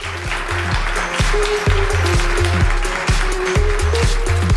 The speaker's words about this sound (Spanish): Un aplauso, por favor, para el jefe.